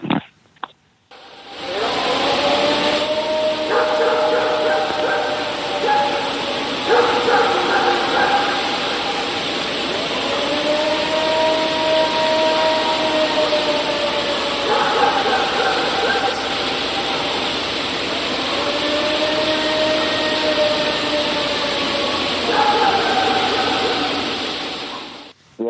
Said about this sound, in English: Was it kind of like the Ohio howl? Is that kind of what you heard?